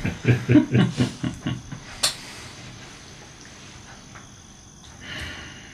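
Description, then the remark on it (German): A short rattling snore: a quick train of low, buzzy pulses that fades over about a second and a half, followed by a faint click and soft hiss, with no talking. “und müsst beide kurz schmunzeln, als diese erhabene Gottheit zu schnarchen beginnt.”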